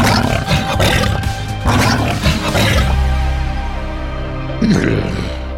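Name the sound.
lion growling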